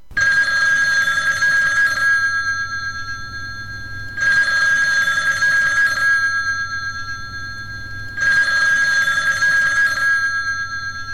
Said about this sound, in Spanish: Coge el teléfono, Miguel.